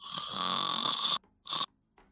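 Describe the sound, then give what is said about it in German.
A voice imitates snoring: one long, raspy inhaled snore followed by a shorter second snort after a brief pause, fairly loud, with no talking. “zusammen und schnarcht vor sich hin.”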